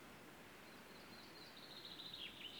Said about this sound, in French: So oh, you hear three birds here, chaffinch, canary, gold On vient d'entendre trois oiseaux, un pinson, un canari et un roitelet.